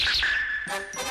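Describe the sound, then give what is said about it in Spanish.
A short, bright cartoon gadget-reveal jingle, the sound of a robot cat character's inventions, chimes out in two quick bursts, a sparkling sustained tone followed by a shimmering flourish, played loud with no talking. “esto es el ruido de, los inventos de Doraemon”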